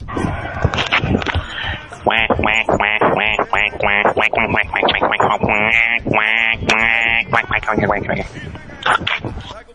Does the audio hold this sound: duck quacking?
yes